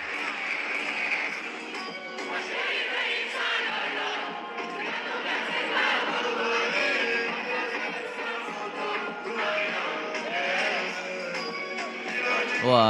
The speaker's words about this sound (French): C'était au concert hier de …, le rappeur.